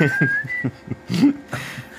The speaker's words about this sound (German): du kannst sicher vieles, aber Pfeifen gehört nicht dazu.